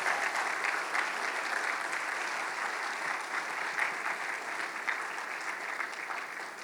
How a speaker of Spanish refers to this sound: ¡Wow! Un aplauso, dese un aplauso, iglesia.